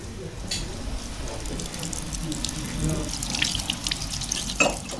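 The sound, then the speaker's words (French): Water runs steadily from a kitchen tap into a sink as the last dishes of the weekend are washed on a Sunday, with small clinks and splashes scattered throughout and one sharper knock near the end. “la dernière vaisselle, avec des cheveux et des poils dans la bande de l'évier de la cuisine.”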